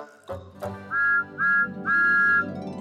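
The steam whistle of Thomas the Tank Engine, the blue number 1 engine on Sir Topham Hatt's railway, toots three times in quick succession, the last blast held longest, over a low rumbling background.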